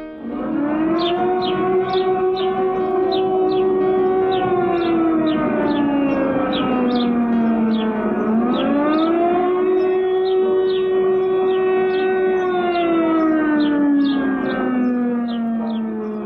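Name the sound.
air raid siren wailing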